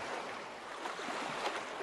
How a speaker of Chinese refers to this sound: 看着滚滚流淌的河水